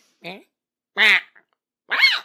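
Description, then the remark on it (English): Three short chirping calls from Gabby, a pet, each with a different rising or wavering pitch, spaced about a second apart with nothing else around them. “And she has such a range of her chirps because she has many cells.”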